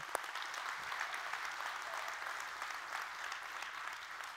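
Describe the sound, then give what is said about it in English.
A church audience applauds its children's team and serve team, a dense wash of many hands clapping at an even level for several seconds, with no voices standing out. “Let's give them a great big hand clap today.”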